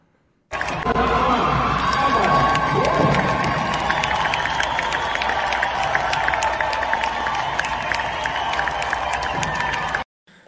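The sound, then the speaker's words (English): A large crowd at an award ceremony of a women's swimming meet cheers and applauds the second-place winner steadily for about ten seconds, with shouts, whoops and clapping blending into a loud, echoing roar that starts abruptly and cuts off at the end. “And you're going to hear, right now, you're going to hear people cheer for the second place winner who is a bi- biological female.”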